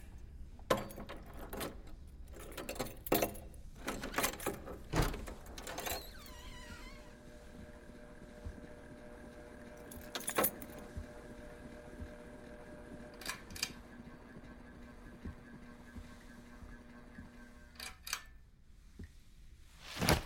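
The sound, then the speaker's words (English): A heavy bunch of large keys jangles in a rapid cluster of metallic clinks, then a few isolated rattles follow over a steady mechanical hum, with no one speaking. “Christ, those keys are big.”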